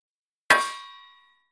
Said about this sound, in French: pourriez-vous taper sur votre casserole